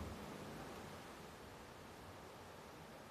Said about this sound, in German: Jetzt fährt ewig der Zug hier.